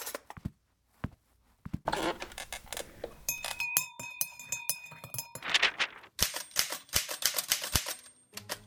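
A manual typewriter clacks away in quick, uneven bursts of keystrokes, with a bright ringing bell and carriage return midway before the close, crisp typing resumes, no voices present.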